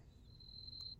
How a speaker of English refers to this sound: there's a cricket outside my dude